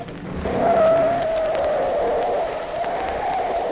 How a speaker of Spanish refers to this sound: ¡Ay, qué a todo dar patinó el carro!